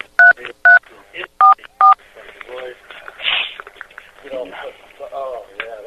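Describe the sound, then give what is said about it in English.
Four quick telephone touch tones beep in succession, each a steady two-pitch chirp, followed by a stretch of muffled, chattering voices with no further tones. “I've decoded these touch tones before, by the way, and I've tried to call these people.”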